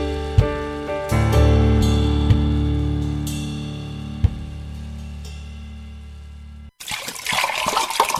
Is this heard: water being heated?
yes